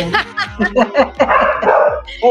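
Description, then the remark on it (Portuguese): A small dog, the speaker's pet, yaps in a quick run of short, high-pitched barks, fairly loud, while people talk and laugh over it during a radio interview at station BR 101.5. “Apareceu um cachorro aí, que maravilha, gente.”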